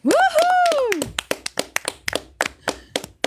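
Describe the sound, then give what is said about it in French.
A short burst of applause: a rising-and-falling vocal whoop opens, then sharp, crisp hand claps ring out in a fairly steady rhythm for a couple of seconds. “On l'applaudit.”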